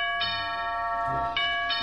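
A doorbell of a castle chimes with bright, ringing electronic tones, struck twice in quick succession with a lingering resonance between strikes, fairly loud with no voices.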